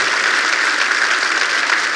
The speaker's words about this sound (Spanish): Si lo crees, dale un fuerte aplauso al Señor. Qué increíble.